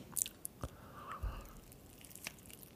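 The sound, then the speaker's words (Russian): Quiet chewing of sushi rolls, including Philadelphia and eel rolls: soft wet smacks and occasional sharp clicks at an irregular pace, with no one talking. “Шумоподавление пока выключим. Чтобы все трескались было слышно.”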